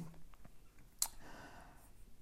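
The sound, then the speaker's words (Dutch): A quiet sip from a drink: a sharp lip click, then a soft, brief slurp and swallow, with no talking. “Even een slokje.”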